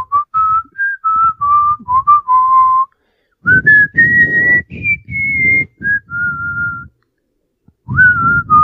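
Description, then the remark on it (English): A person whistles a slow, flowing Lord of the Rings melody right into the microphone, loud and breathy, in three phrases separated by short pauses, with no talking. “You're whistling right into the microphone, dude.”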